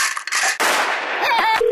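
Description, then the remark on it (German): A single loud musket gunshot cracks out and rolls into a long, noisy echo, following a brief burst of hiss. No one speaks. “Unser absolutes Mask-Have ist unsere Maskete. Hier, Froschmaske, gib mal einen Schuss ab, damit die uns auch glauben.”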